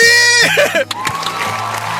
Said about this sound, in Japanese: ありがとうございます。しかも拍手が入った、はい。はい、今日もうこのためだけにね 用意しました。